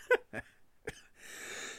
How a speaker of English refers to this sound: See, I know that was a normal cough because I tested negative.